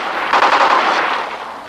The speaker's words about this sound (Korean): 어, 이건 총소리. 팜! 팜! 총성은 금방 멎었지만 저편에서는 아무런 응답이 없었다.